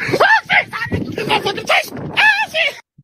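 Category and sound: human body sound, man screaming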